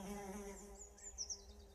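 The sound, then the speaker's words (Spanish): A housefly buzzes steadily, a continuous droning hum with slight wavering in pitch, while a few faint bird chirps flicker in the background. “No sé, la verdad es que es un sonido bastante parecido, pero este era el sonido de una mosca, la mosca.”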